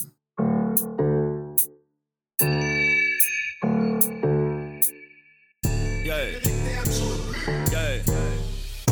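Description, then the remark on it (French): A music track starts with bright, bell-like tuned notes and crisp percussive ticks in a steady rhythm, then swells into a fuller, denser arrangement about halfway through. No voices. “Fait que là, on s'en va écouter de la musique, ça tente-tu?”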